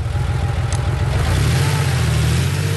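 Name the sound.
car accelerating away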